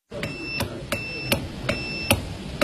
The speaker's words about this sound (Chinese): 在故居的二楼有两台互动型发报机，其中一台要求正确输入数字一九四九的摩斯电码才能成功发报。